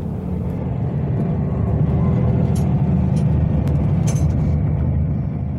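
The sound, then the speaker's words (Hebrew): Tanks driving past on a Sunday morning: a heavy, continuous low engine rumble with grinding texture that holds steady throughout, broken by a few faint high-pitched metallic squeaks. No one speaks. “אני שומע טנקים נוסעים, תסתכלו למטה, תראו איזה טנקים זה ולאן הם נוסעים.”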